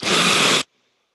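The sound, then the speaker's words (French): A single loud breath drawn in sharply, a rushing airy burst lasting about half a second before cutting off into silence. “Inspire.”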